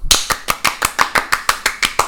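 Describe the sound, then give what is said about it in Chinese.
Hands clap in a quick, steady rhythm, about a dozen sharp, bright claps over two seconds, fairly loud, with no voices over them. “OK，我们现在终于突破魔咒，我们终于录到第二集了，来拍手。”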